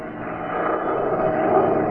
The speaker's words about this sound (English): The weather was awful. The little plane rocked, rolled, and practically stood still in midair.